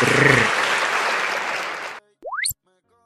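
Loud, dense applause with cheering fills about two seconds, then stops abruptly; after a brief silence, a quick rising whistle-like sound effect sweeps upward in pitch and ends.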